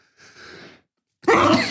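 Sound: sneeze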